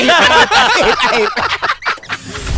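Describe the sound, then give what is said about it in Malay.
A person loudly imitates a rooster crowing, a strained, warbling vocal call broken into choppy bursts that trail off toward the end. “berkokok tadi ada tak yang malaikat lari daripada kokokan”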